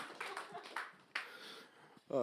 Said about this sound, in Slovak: Ale dajte mu potlesk, dobrý je, nie?